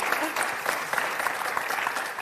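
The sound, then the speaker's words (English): An audience at a live show claps steadily for Kitty for a couple of seconds, a dense, even patter of many hands with no single claps standing out, moderately loud. “Let's give Kitty a round of applause, shall we?”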